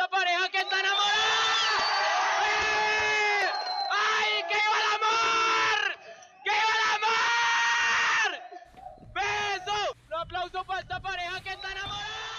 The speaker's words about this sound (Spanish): Un aplauso para esta pareja que está enamorada. ¡Ay, qué viva el amor! ¡Qué viva amor!